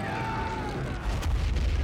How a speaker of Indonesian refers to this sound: Suaranya beradu nyaring dengan gelegar meriam.